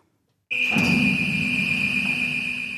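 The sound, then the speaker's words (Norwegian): A loud, steady high-pitched warning alarm starts abruptly after a brief silence and drones on continuously, over a heavy low mechanical rumble, as the submarine gate opens at the former top-secret Olavsvern military base outside Tromsø, Norway. “Alarmen forteller at ubåtporten åpner seg inn til det som en gang var den topphemmelige militærbasen Olavsvern utenfor Tromsø”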